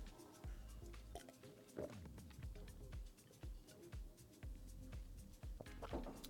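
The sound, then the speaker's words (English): Someone gulps water, with a steady run of wet swallowing sounds and soft liquid squishes repeating every half second or so, no talking. “Drink the water, stay hydrated.”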